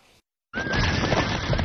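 A horse neighs loudly after a short silence, one long whinny with a high, slightly wavering tone over a rough, breathy rasp that holds steady for over a second. No one speaks.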